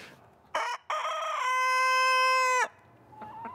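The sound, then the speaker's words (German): A rooster crows once, loud, a short rising opening followed by a long sustained harmonic call. Faint ambient noise surrounds it, with no talking. “wenn er dann um vier oder so kräht, dass die Nachbarn dann vielleicht auch gar nicht mehr so begeistert sind”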